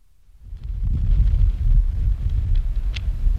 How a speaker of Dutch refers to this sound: Ik zit hier in een gierende wind, vlak bij de zee, op het uiterste puntje van Zuid-Afrika. We zijn vanuit de tafelbaai 50 kilometer doorgereden tot aan de punt bij Kaap de Goede Hoop.